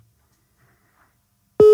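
After a stretch of near silence, a telephone ringing tone on an outgoing call cuts in abruptly: a loud, steady electronic hum, clear, with no voices.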